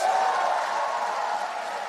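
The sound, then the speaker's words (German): Cheering in some rows of the European Parliament as President Roberta Metsola announces the adoption of the Nature Restoration Law, passed 336 to 300: a dense, steady roar of many voices and whoops holding at an even, fairly loud level for a couple of seconds without a break. “Es brach in einigen Reihen im Europaparlament Jubel aus, als Präsidentin Roberta Metzola das Ergebnis der Abstimmung über das sogenannte Gesetz zur Wiederherstellung der Natur verkündete.”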